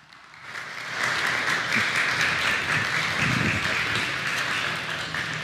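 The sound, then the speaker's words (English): Audience applause welcoming a speaker to the stage swells up after a brief moment and holds steady as a dense, continuous wash of many hands clapping, fairly loud, with faint crowd voices mixed in. “can we give a loud, thunderous welcome to Dr. Tim Laniak”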